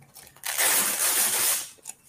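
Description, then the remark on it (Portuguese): A velcro fastener on a waterproof item is pulled open in one sustained rasping rip lasting about a second, fairly loud, followed by a brief softer scratch at the end. “Ele tem um fecho de velcro aqui.”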